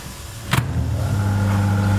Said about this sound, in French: Donc ça se présente sous, cette forme-là, des petites pilules comme ça. On est au micro-ondes.